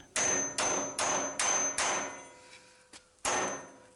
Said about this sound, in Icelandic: Ofanjarðar var barið þrísvar með hamri í borin og eitt lagði eirað upp að honum. Hann heyrði döft hljóð eins og einhver væri að lemja með skeið í málmstokk.